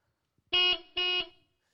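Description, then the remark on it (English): A car horn honks twice in quick succession, two short, bright, loud blasts of equal pitch separated by a brief pause, with no talking, honking at a driver who has not moved off at a green traffic light. “When the reality is, is you want to get on the horn and do this.”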